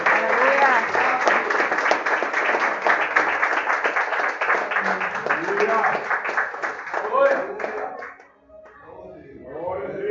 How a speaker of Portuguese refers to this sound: A igreja aplauda o nome de Jesus.